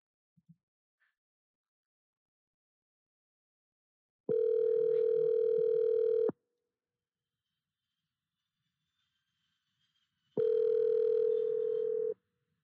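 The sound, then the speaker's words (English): An outgoing phone call's ringback tone: two steady electronic tone bursts about two seconds long, separated by a four-second gap, clear with near silence around them. “calling you, bro.”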